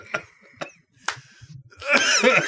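Three sharp coughs land about half a second apart, then a louder, rougher stretch of hacking follows, sounding like a deep cough or throat clearing.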